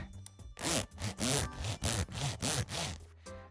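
A zipper on a cushioned leather Audio-Technica microphone case is zipped back and forth several times, a series of quick rasping strokes in a steady rhythm with no talking.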